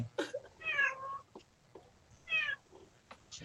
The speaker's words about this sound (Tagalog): Eh, yung pusa, yung pusa, yung pusa nyo, ano, umiiyak na.